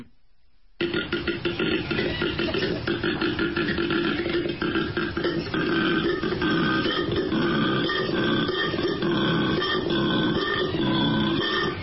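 A koala's deep, rasping bellow starts after a short silence and keeps going without a break, a low, pulsing series of belch-like grunts and snorts. It is loud throughout, with no talking.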